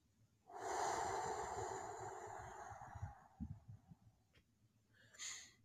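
A long breath drawn in deeply through the nose, followed by a softer, slower breath out and a brief faint intake at the end, with no talking.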